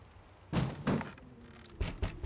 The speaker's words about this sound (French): Ce matin, Pipo est réveillé par des petits coups contre la porte.